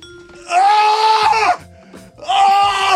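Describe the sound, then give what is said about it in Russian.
A voice imitates a man grunting and straining at the gym: two long, loud, strained groans separated by a brief lower rumbling pause. “Не-не-не, а это вот такие, знаешь, те, те самые мужики, которые в спортзалах обычно еще вот так, вот так их слышно.”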